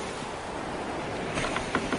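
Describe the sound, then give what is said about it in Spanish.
A steady wash of sea water surges around a small trireme moved by many rowers, with a few brighter splashes breaking through toward the end, moderately loud, with no voices. “Dioses del Olimpo, tanta gente para hacer que un pequeño barco se mueva por el agua.”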